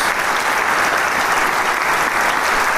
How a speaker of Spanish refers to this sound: Y los músicos reciben el, caluroso, el caluroso aplauso de un público que ha sido testigo de este hermoso concierto, primer concierto de temporada primavera, perdón, otoño-invierno 2023 un inicio muy bueno que nos augura una gran temporada